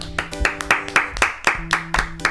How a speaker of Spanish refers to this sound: Un Aplauso solemne.